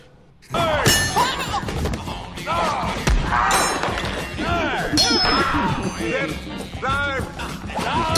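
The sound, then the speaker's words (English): Thrown rubber wrenches smack into people, most of them hit in the head, with a few sharp, clanging thuds scattered through the scene beneath loud, continuous voices talking and exclaiming. “And the funny thing is, he's hitting most of them right in the head with these wrenches.”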